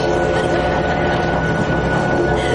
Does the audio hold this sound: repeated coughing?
no